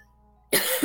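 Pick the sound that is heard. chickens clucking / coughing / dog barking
coughing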